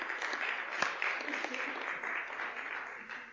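Audience applause fills the whole stretch, a dense, steady wash of clapping hands at moderate volume with no gaps, one sharper clap standing out near the start.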